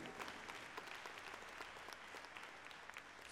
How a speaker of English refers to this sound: Yeah, you can clap about that. Absolutely.